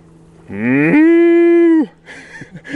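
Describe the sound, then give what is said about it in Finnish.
A man's voice imitates a cow mooing, one long loud low moo that rises in pitch, holds steady for about a second, then drops off, followed by faint rustling. “Sitten kans kun tota, ajelee autolla ja vaan ikkunaa siinä on vaikka lehmät vieressä, niin tota, saa kyllä päät kääntymään ja tulemaan luokse, kun vetää vähän lehmää siihen tälleen.”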